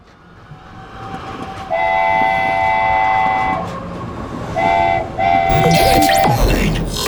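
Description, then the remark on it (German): A train rolls in with a steady rumble, sounding its horn: one long, bright blast, then two shorter ones, as clanking and squealing wheel noise swell at the end. “Da rollt er, rollt er ein.”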